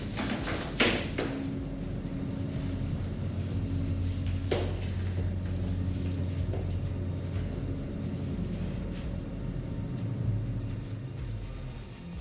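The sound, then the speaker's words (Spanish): A steady, heavy mechanical rumble of an elevator in motion, stopping at the top floor, broken by a couple of brief clanking transients that suggest a sliding door; no voices. “Se ha parado la última planta.”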